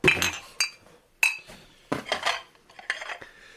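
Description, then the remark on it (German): Ceramic plates clink and knock together in a quick, irregular series of sharp hits with a bright ringing edge, some louder than others, as they are stacked into a cardboard box. “Packen Sie die Teller in den Karton da.”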